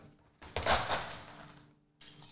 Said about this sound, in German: Ich, ihr hört schon, ich habe Crush Eis. Wir haben hier nie Crush Eis, aber wir haben ein Lewis Bag. Ein Lewis Bag ist ein, ein, ähm, ein Sack. Da kann man mit einem großen Hammer Crush Eis machen.